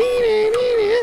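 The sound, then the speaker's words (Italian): A voice imitates the tones of an acoustic coupler modem, used to connect to the internet by resting a telephone handset on it, holding a single steady, slightly wavering pitch for about a second before cutting off. “Cioè tu per connetterti a internet usavi l'accoppiatore acustico, quindi in pratica tu che facevi?”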